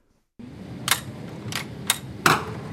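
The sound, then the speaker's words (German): Four sharp gunshots crack at an indoor shooting range of a shooting club, fired at a paper silhouette target hanging at the back of the range. The shots are spaced irregularly and sound somewhat muffled over a steady background hiss. “Sechs Schüsse durchsieben die Papiersilhouette, die im hinteren Teil des Schießstandes baumelt.”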